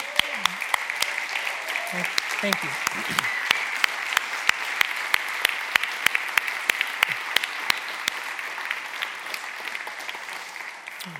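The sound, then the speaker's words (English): An audience breaks into sustained applause to show appreciation for those who have served, are on active duty or are retired, dense overlapping claps steady for about eleven seconds, with a brief spoken voice near the start. “And we want to just show our appreciation by giving you a round of applause.”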